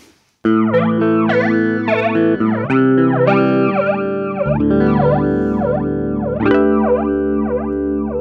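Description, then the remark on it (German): Sustained electric guitar chords run through a flanger pedal with its feedback control turned fully up, a loud metallic jet-like whoosh sweeping up and down in a steady, repeating cycle as the chords change, with no voices. “Ja gut, also um die, um die Sache kurz zu machen, ich würde sagen, der Flanger klingt wie ein Flanger klingen soll.”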